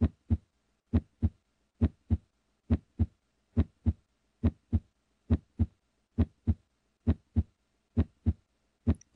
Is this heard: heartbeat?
yes